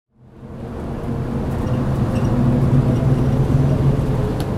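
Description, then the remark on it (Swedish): Steady low engine drone and rumble from inside a moving city bus in Kazan, Tatarstan, fading in quickly and then holding a constant, fairly loud hum with faint rattles throughout. “och när man åker buss i Kazan så låter det så här.”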